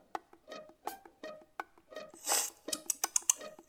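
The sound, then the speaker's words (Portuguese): Someone sips water: soft mouth clicks and swallows, a brief hissing slurp in the middle, and light clinks of a glass, all fairly quiet with no talking. “Vou tomar meu gole d'água.”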